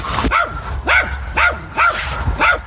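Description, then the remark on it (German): Pixie, an old Jack Russell terrier that runs around the paddock at a horse yard, barks five times in a steady rhythm, sharp high-pitched yaps with a rising-falling tone, fairly loud and with no voices over them. “Pixie ist der äh, Jack Russell, der hier rumläuft und auf der Koppel eben eifrig dafür gesorgt hat, dass zwei der morgigen Starter noch ein bisschen an ihrer Fitness arbeiten”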